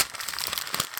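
Crackly crinkling of a paper CV being crumpled in the hands before being thrown in the bin, a dense run of sharp rustles and snaps lasting about a second, with no voices.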